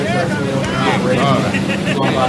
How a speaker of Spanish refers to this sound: Sorry, Boricua, el ruido no te pude oír. Gracias, Huevín. No, eso fue un ruido que puso huevito para que el boricua creyera que había interferencia y eso.